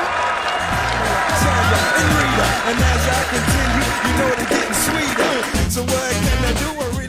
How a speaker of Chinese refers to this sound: 让我们用热烈的掌声来欢迎一下我吧。